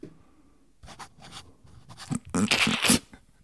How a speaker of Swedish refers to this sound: Då skriver jag ja. nu. Ja. Så. Det var min autograf.